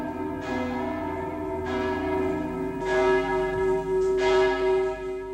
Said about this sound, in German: Glocken aus Berlin rufen